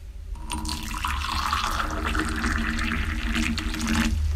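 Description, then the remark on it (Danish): Hot water is poured steadily into a cup, a continuous splashing, gurgling stream that lasts about four seconds, fairly loud, with no voices. “Her er to eksempler på vand, som jeg formoder er forskellige temperaturer, der bliver hældt op i en kop.”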